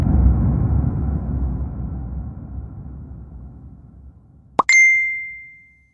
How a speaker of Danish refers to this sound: Der tigger en sms ind fra din veninde.